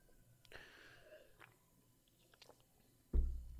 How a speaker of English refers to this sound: Um, gonna be taking a sip of this non-alcoholic beer. Don't want to leave you guys hanging.